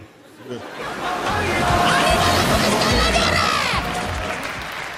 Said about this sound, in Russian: Ой, эти мексиканцы такие шумные.